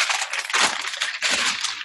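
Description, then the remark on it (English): Sheets of paper being shuffled and rustled, a steady crinkly hiss with two stronger bursts of handling, no voices. “so much paper.”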